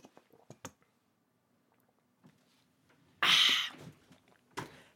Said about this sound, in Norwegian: Jeg skal bare drikke litt vann. Vent litt.